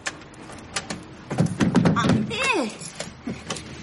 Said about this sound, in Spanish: Más tarde, Elvira está intentando abrir la puerta de su casa. Venga, puerta. Ábrete.